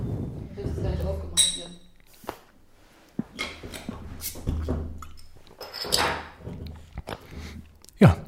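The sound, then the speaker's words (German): Beer bottles clink together in a toast, a few bright, sharp glassy knocks spread over several seconds amid handling noise, rustling and faint murmured voices. “Prost.”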